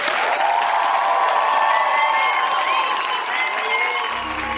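An audience claps steadily for several seconds, a dense, even wash of applause that holds its level before easing slightly at the end.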